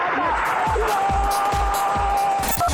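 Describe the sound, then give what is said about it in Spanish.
A dense, loud stadium crowd roars without pause, with steady low thumps like drumbeats pounding through the din and a faint sustained tone hovering above. “Cuando escuchamos la grada rugir, es la pasión que se hace sentir.”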